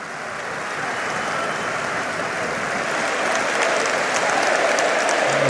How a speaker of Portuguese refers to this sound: Um ato de eh, contrição de Luís Montenegro, um, eh, a merecer aqui aplausos eh, por parte do Congresso.